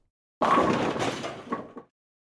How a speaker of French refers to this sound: Pas mal la transition strike, hein J'adore ce bruit, on se le remet un coup.